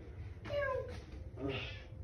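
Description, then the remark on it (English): A pet cat named Chloe meows twice in quick succession, the first a drawn-out, falling cry and the second shorter, both moderately soft over a low background hum with no talking. “We have a cat.”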